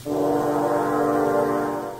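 Three horns sound the theme of the evil wolf in a classical musical fairy tale together, a loud, dark, sustained brass chord held for about two seconds before easing off slightly at the end, with no voices.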